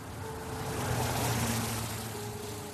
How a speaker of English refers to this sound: All of a sudden, you hear a car just whiz right by.